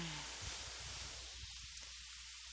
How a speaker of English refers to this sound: I think I might have to close my windows here. Yep, here comes the rain. I live in Hawaii, and the rain comes and goes all day. Tropical. Here comes the rain.